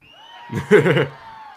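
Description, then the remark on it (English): A brief burst of audience cheering at a show in an arena, with whoops and shouted voices swelling to a loud peak, then fading back within a second or so. “I promise you if you clap, the lights will not go out in the arena.”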